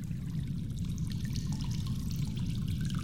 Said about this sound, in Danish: Øh, vældig spændende, og så ryger det jo ned i kloakken med et ordentligt brus.